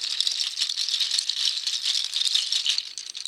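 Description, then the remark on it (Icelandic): A goat hoof mobile rattles steadily for the whole moment, a dense, bright clatter of many small hard pieces knocking together with no pauses and no voices. “Þetta er hérna geitanakla.”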